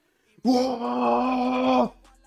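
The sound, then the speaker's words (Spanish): A single sustained, growling vocal roar lasting about a second and a half, loud, as a person imitates the harsh vocals of a black metal band's songs; it starts abruptly and cuts off, followed by quiet. “Yo dije, a ver, vamos a escuchar unas canciones de esta banda y eran...”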